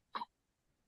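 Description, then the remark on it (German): A baby boy gives one quick, high little sneeze, fairly sharp, followed by near silence with only faint background noise. “Gesundheit, mein Schatz.”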